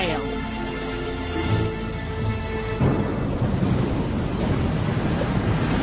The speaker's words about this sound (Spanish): Un fuerte temporal de invierno sopla del noreste. Es el que sopla con más fuerza. Las olas chocan con gran intensidad contra el edificio.